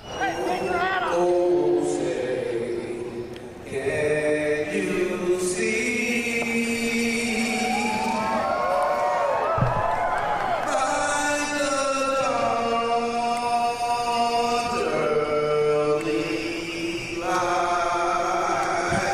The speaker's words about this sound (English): I love how everyone's cheering. It's better than I expected it would be.